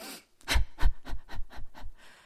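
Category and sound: human body sound, panting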